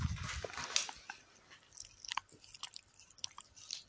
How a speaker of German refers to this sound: Falls ihr das Schlabber gerade hört, er hat mir gerade die Backe abgestabbert.